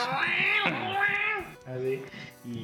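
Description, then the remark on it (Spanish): A person loudly mimics cats yowling at night, producing a long wavering meow followed by two shorter whiny cries, with no other sounds around. “Y ya en la noche escuchas así. Es que siempre en la noche los pinches gatos son.”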